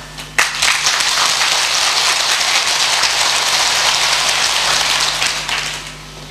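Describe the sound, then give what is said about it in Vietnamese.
A crowd bursts into sustained applause, a dense wash of many hands clapping at once, steady and fairly loud for several seconds before tapering off at the end. “đó là một bài học mà mình có thể làm được trong tầm tay thì xin tất cả hãy dâng cao trào pháo tay để cảm kích nó.”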